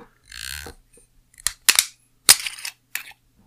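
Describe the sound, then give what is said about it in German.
A bottle of red wine (Toro Loco, a cheap red wine from Hofer) being opened: a short scraping rustle, then a series of sharp, crisp cracks and clicks at irregular intervals, with no one speaking. “Unter anderem sehen wir, den ich jetzt, glaube ich, für die 20. Folge präsentierend aufmache. Ihr seht es zwar leider nicht, aber ihr könnt es hören.”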